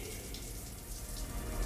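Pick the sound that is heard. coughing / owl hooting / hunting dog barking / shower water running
shower water running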